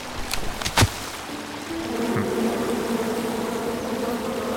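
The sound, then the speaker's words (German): Steady buzzing of bees in a video game hums throughout, with a few sharp clicks and a brief thud near the start, then a sustained droning swarm tone that swells slightly and holds. “Okay, die Bienen sollen es machen.”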